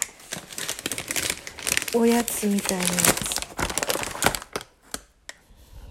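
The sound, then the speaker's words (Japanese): A paper bag holding kumquats crinkles and rustles steadily as it is handled and opened, with dense crackling bursts throughout and a brief stretch of someone speaking over the noise midway. “何なんだこの紙袋に入った謎の”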